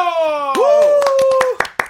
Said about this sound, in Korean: 자, 박수와 함성요.